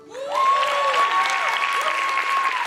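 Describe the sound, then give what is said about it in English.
An audience claps loudly and steadily for the worship team, dense applause that swells in and holds strong, with a sustained musical tone ringing underneath. “Y'all, give it, uh, give it up for our worship team”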